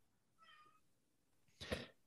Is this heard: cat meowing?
yes